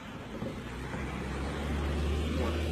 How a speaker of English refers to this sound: Two cars come. You got two cars coming two different ways.